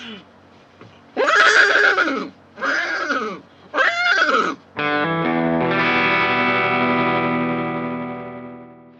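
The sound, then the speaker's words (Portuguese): A person whinnies three times in quick succession as a punishment on Big Brother, each a loud, rising-and-falling horse-like neigh imitation, followed by a long, steady droning tone that fades out gradually. “Como castigo, rote sobre si mesmo e relinche três vezes.”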